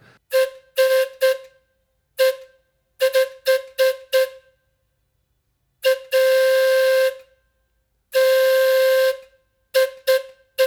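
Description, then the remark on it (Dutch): The real steam whistle of a carousel's steam engine, recorded at the carousel, blows in a rhythmic pattern of short toots broken by two long sustained blasts, loud, with bright harmonic tones and no voices. “natuurlijk de echte stoomfluit in het carouselpleis opgenomen.”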